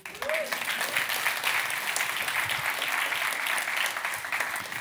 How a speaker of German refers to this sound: Applaus bitte.